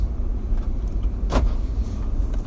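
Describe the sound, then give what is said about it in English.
A car engine starts and rumbles low and steady, with a single brief, sharp burst of noise partway through; no one speaks. “I, my car started for me.”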